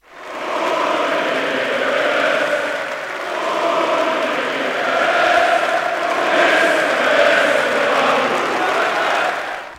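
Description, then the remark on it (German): Thousands of club members give Uli Hoeneß a sustained standing ovation at his last meeting as club president, celebrating him and his life's work: dense continuous applause that swells and rises slightly in waves with a murmur of cheering, lasting throughout without pause. “Und schon zum Start des Abends, da kämpfte Hoeneß mit den Tränen, denn die tausenden Mitglieder, die feierten ihn und sein Lebenswerk mit stehenden Ovationen und nicht enden wollendem Applaus.”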